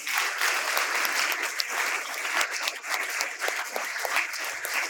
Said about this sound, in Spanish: Por eso, para irnos, antes de irnos, si le vas a aplaudir al Señor, aplaudile bien. Eso no es para mí, es para Él.